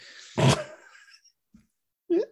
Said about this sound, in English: Excuse me till I clear my throat. I'll edit that out later for the cants.